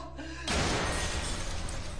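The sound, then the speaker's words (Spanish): Window glass suddenly shatters with a loud crash, followed by more than a second of dense, noisy clatter and tinkling as shards break apart and fall. “Lo reventaron los vidrios, como que si hubiese sido una piedra, una explosión.”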